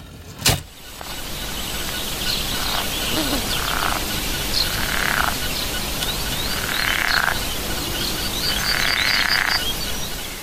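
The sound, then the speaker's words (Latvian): Green frogs croak in a small garden pond in Burtnieki, Latvia, in a series of rattling, buzzy bursts repeating every second or two over a steady noisy background, with a sharp knock at the start. No one speaks. “Vienu dienu viņam sagribējies Lai dīķī būtu zaļās vārdes, bet nu nav apkārtnē tās zaļās vārdes.”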